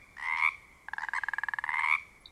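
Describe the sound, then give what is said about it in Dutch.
A frog croaks: one short drawn-out call, a brief pause, then a longer run of rapid, evenly pulsed croaks that ends in a sustained note, with no other sounds around it. “Kwaak, kwaak.”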